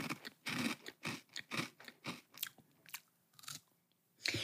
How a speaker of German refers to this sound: kaut immer noch, immer noch. Und ich vermute einfach, dass es, ähm, dass sie einen Konterkeks gegessen hat